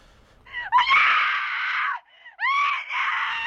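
Two long, loud human screams, each sustained for over a second with harsh, bright harmonics and a brief break between them, heard on their own without any talking.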